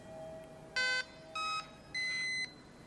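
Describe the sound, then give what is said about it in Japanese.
A device vibrates in a slow three-pulse pattern, one of its six signal levels, each pulse a short steady electronic hum with a gap between, fairly loud against a quiet background. “これは遅い3回なんですね”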